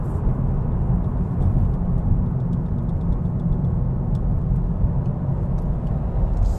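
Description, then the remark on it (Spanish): The 1.0 three-cylinder engine of a Honda Civic drones loudly and steadily, a deep constant rumble with a quick series of faint crackling cuts near the middle as it bounces off the rev limiter. “Ahí está el corte.”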